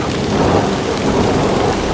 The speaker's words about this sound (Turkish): Fakat bu defada korkunç bir tufan başladı.